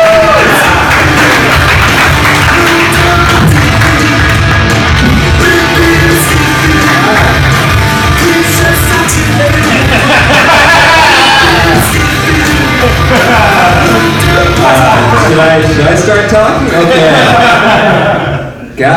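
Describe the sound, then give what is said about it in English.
A loud crowd at a comedy show cheers, whoops and applauds continuously for nearly twenty seconds as a comedian is brought on stage, a dense wall of clapping and shouting that fades slightly at the very end. “Give it up, Isaac Hirsch. Clap it.”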